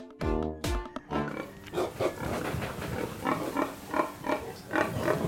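About 50 pink pigs grunting and squealing in their outdoor run on an organic farm, with loud harmonic squeals at the start followed by a continuous, overlapping chorus of grunts.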